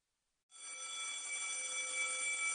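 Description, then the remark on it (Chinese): After a moment of silence, a school bell starts ringing for the end of class and keeps going, a steady, loud metallic clang with bright, shrill overtones and no voices. “下课铃声响起，数学老师收卷离开，教室里顿时就热闹了起来。”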